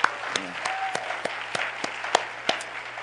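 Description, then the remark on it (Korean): An audience applauds steadily, a dense wash of many hands clapping with a few sharper individual claps standing out, sustained at a moderate level throughout, recognizing the woman who composed a song. “우리 한번 큰 박수로 한번 경례하겠습니다.”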